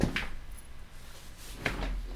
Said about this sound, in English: Sorry, I got caught up on my chair mat and about ate shit into my microphone.